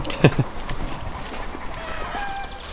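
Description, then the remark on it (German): A couple of sharp clucks from chickens, followed by a quieter stretch of soft farmyard murmuring and faint higher calls in the background. “der Moment, wo sie kackert oder wie sie man auf Deutsch sagt, ja.”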